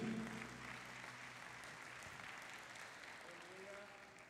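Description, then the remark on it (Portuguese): A church audience applauds the Lord in a steady, dense wash of clapping that holds evenly for several seconds, with a faint low tone lingering underneath and a brief tonal note near the end. “Em o nome de Jesus e todo o povo de Deus que assim crê e recebe, diga amém e dá um lindo aplauso ao Senhor.”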